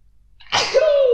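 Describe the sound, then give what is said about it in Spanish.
A single loud sneeze, a sharp breathy burst that trails into a short voiced 'choo' after a moment of quiet, with no talking around it. “¡Salud otra vez!”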